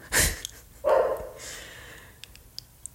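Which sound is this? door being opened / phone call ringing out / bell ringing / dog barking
dog barking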